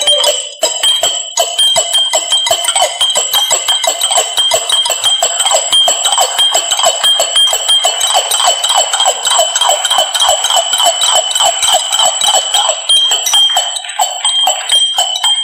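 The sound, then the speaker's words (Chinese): Pots, bowls and ladles are struck by two performers in a quick, steady rhythm, giving bright, ringing metallic clinks with a sustained high ring, loud and continuous with no voices. “锅碗瓢勺都放起来。今天我们俩用它打起来。”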